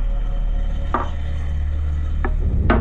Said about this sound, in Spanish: soñando muy tranquilamente cuando me despertó un sonido sordo y grave, como un martilleo.